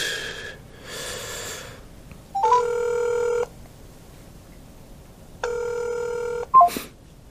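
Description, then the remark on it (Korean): A phone ringback tone sounds in two steady, evenly pitched bursts of about a second each, separated by a pause. Short beeps and breathy noises come before and after, and no one speaks. “배역 때문에 전화한 것 같은데”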